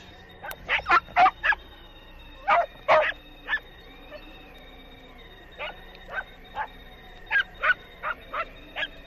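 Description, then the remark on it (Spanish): A dog barks anxiously at a house with a clean patio, plants and flowerpots, in quick, uneven bursts of short, sharp yaps, pausing now and then before starting again, clear with no voices over it. “El patio limpio, el portal recién pintado, el pozo con su brocal completo, plantas, macetas, perro ladra angustiosamente.”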